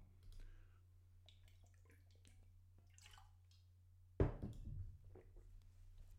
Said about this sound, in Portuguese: Deixa eu só dar aqui um golinho de água, esperem lá.